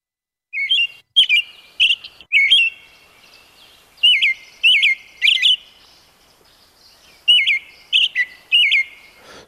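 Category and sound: bird, american robin song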